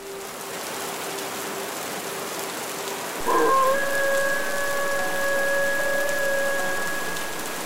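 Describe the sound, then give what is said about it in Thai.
Rain begins falling on the grounds of a home and hisses evenly throughout, steady and constant. About halfway through, a sustained high-pitched tone rises over the downpour and holds for several seconds before fading. “จนเข้าเขตบ้าน ฝนก็หยาดเม็ดลงมาพอดี”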